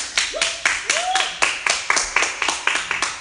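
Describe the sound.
An audience claps together in a steady, quick rhythm, loud sharp beats throughout, with a brief rising whoop or cheer from one voice early on.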